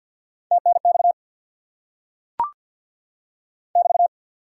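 Very fast Morse code at 50 words per minute sending amateur radio contact (QSO) phrases in a steady mid-pitched tone: a quick burst of keyed dots and dashes, a brief click after a pause, then another short rapid burst, all clear with no talking.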